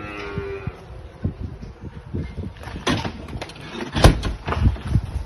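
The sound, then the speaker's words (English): Several weaned calves, three months and older, moo and bawl in an echoing barn, overlapping calls, with shuffling and clanking of gates or doors in between. “Now we're just going to move out of this barn into the next stage of growth, which is uh, weaned calves here, and into the uh, next barn through this door.”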